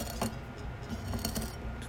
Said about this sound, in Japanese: えー、少しずつですねそのグラスの縁を塩が広がっている皿に当てていってですねつけていくような形になっていく